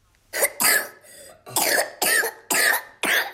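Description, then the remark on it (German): A child coughs in a rapid fit of about six short, harsh, fairly loud coughs, one after another with brief gasps between them and no talking. “Husten, Fieber, Halsschmerzen, Appetitlosigkeit, keinen Durst. Das alles können Symptome einer Infektion mit dem RS-Virus bei kleinen Kindern sein.”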